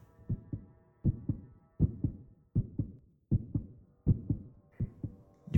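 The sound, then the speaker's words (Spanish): A muffled, rapid heartbeat thumps steadily in close double beats, low and dull with a faint hum beneath, repeating about every three-quarters of a second with no voices. “Era un resonar apagado y presuroso. Un sonido como el que podría ser un reloj envuelto en algodón.”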